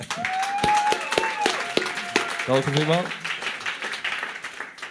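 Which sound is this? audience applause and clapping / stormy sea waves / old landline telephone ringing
audience applause and clapping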